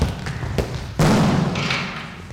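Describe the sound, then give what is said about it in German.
A seniors' self-defence trainer lands a rapid series of dull, padded punches on a rectangular striking pad, a Pratze, in a school gym, the last blow heavier and followed by a rustling wash of noise; no one speaks. “Blitzschnell und punktgenau schlägt der Trainer der Senioren auf den imaginären Räuber ein.”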